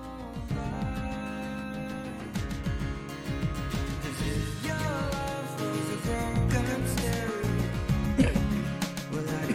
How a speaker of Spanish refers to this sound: Bueno, gente people, vamos a poner un poquito de música, si es que no se oye con eco.